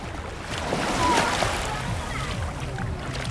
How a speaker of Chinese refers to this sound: 这段声音跟你听一听，这是在三亚湾录下的夏天里的夜晚，海浪向你涌过来了。